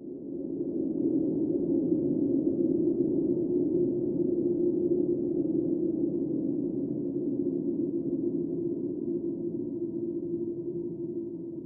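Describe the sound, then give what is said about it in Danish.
Whale song recorded underwater: a continuous low, humming drone of layered moaning tones that holds steady and fairly loud for about twelve seconds, with no voices. “Lyden af valer er også en central del af den norske kunstner og forsker Jana Winterhunds værk Suak.”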